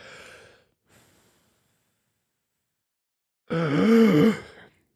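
A brief breathy puff, a pause, then a strong sustained blow into a breathalyzer during an alcohol test. It lasts about a second and is loud, with a wavering whistle-like tone. The device is held close to the microphone. No talking.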